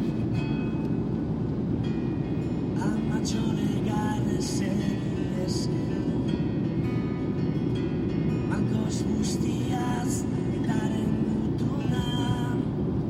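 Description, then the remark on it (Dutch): Steady, loud low rumble of road and engine noise from inside a car driving on the way to a prison in Madrid, constant throughout, with people talking over it and occasional faint clicks and rattles. “Dat is dus een fragment eh, dat ik in de auto zit op weg naar eh, Madrid, naar de gevangenis waar uh, zit.”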